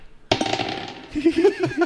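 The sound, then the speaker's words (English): Dice rattle and clack together inside a dice bag, fairly loud: a sudden burst of clattering followed by a string of quick, uneven clicks as they shift and knock. “reaching into his in bag dice bag. dice bag. Can you guys hear that?”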